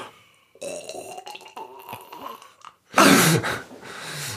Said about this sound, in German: Und rülpsen können wir auch machen. So rülps, as, äh, ASMR. So ganz sinnlich rülpsen. So. nee, so mit, wo du hörst, was da hochkommt.